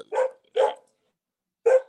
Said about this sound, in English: my dog wants to participate in the podcast